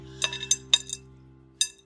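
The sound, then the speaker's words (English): Ice cubes clink several times in quick, irregular succession, bright and glassy, then pause before one last clink, all over a low steady hum with no talking, as about half a scoop of ice-cold water is dribbled in to make a dough. “So I'm gonna start with about a half a scoop and just dribble that in”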